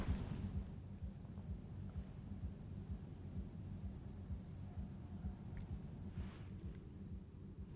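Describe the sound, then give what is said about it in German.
Muffled techno music playing in the middle of a forest: a steady, thumping low bass beat and rumble with the higher parts barely audible, plus a few faint chirps above. No one speaks. “Techno. Mitten im Wald.”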